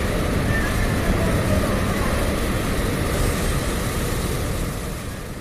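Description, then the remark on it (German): A tunnel boring machine crushes rock under the Brenner Pass in the Alps, boring the world's longest railway tunnel, with a loud, steady, dense mechanical roar and rumble that fills the space continuously, easing off slightly at the very end. “Unter dem Brennerpass bohren Tunnelbohrmaschinen den längsten Eisenbahntunnel der Welt.”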